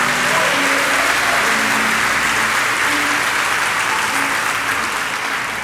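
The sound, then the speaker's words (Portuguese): A large crowd claps steadily and loudly for several seconds, a dense, continuous wash of applause given to the Lord, holding its intensity throughout, with faint sustained tones humming underneath. “Dá uma salva de palmas ao Senhor.”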